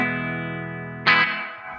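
An electric guitar rings out through an Eventide effects unit, a sustained chord washed in a little reverb, then a brighter strum cuts in near the end and trails off into a lingering tail.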